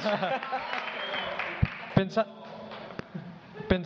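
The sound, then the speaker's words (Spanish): An audience applauds amid overlapping chatter: a dense, rustling wash of clapping with a few sharp, louder claps standing out, while voices talk over it. “bien, muy bien, un fuerte aplauso. Espera, aplausos, pero bueno.”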